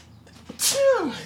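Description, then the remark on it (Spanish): A single loud sneeze bursts out sharply, its breathy hiss dropping into a short voiced tail, with no talking around it. “Salud.”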